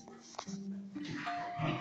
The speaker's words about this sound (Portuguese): minha cachorra tá brincando demais aqui, gente. Desculpa pelos ruídos. Eu tenho dois cachorros, um tá, tá brincando de pega-pega dentro de casa.